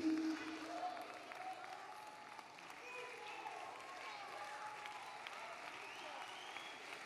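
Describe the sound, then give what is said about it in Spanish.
An audience breaks into sustained applause, a dense, steady patter of many hands clapping at an even loudness for several seconds, with indistinct voices mixed into the noise. “Si hay un aplauso”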